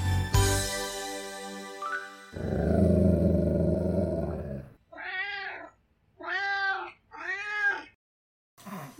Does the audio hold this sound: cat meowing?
yes